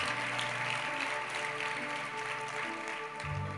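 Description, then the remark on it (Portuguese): A crowd claps for Jesus steadily throughout in a dense, continuous patter of applause, while sustained low keyboard or organ tones hold underneath. No one speaks. “Uau, salve palmas pode para Jesus.”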